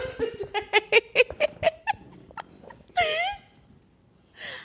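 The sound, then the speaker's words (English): A bird calls in a quick run of eight or so chirpy, clucking notes, then lets out a louder, drawn-out cry and one shorter call after a pause, with no talking. “So it, it would have to be a bird like constantly running into the window.”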